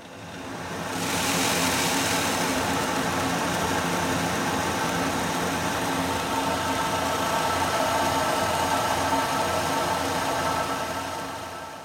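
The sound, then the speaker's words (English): A rice mill at the rice factory in Honolulu grinds brown rice sourced from Japan, milling it to customer specifications, with a steady, loud mechanical drone and hum, rising in after a moment and running unbroken with a constant whirring texture before easing off at the end. “These may seem like trivial concerns, but at the rice factory in Honolulu, they source several types of brown rice from Japan and then mill it to your specifications.”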